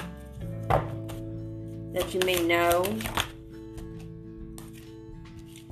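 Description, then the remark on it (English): A brisk burst of tarot cards being shuffled, a soft papery riffle lasting about a second, sits under a person speaking quietly, with a few lighter taps before and after. “The sensitivity card popped out while I was shuffling.”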